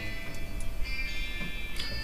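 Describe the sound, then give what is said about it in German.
A mobile phone belonging to an unknown owner rings with a steady, high-pitched electronic tone that holds and shifts slightly in pitch, fairly soft against a low background hum, with no one speaking. “Ja, hier klingelt gerade ein Handy, dessen äh, Besitzer ich nicht kenne.”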